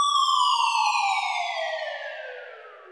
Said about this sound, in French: Et ensuite, pour finir, on a juste rajouté des FX histoire de rendre le truc encore plus encore plus carré. et un deuxième FX euh, qui est une sirène en fait, une sorte de sirène.